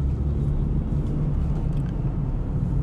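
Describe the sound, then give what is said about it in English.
Steady low rumble of a car cruising on the road, heard from inside the cabin, with constant engine drone and tire noise and faint hiss above, no voices. “We're in the car.”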